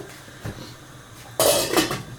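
A lid is set onto a cooking pot of water being brought to a boil for lazy dumplings (kluski leniwe): a soft metallic tap, then a loud clattering clank with a brief bright ring that fades quickly. No one speaks.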